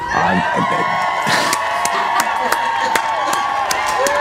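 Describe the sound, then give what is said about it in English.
A crowd cheers and claps for the Vic Show crew, with scattered whoops and sharp handclaps rising over a steady roar of voices that fills the whole stretch. “yes, thundering applause.”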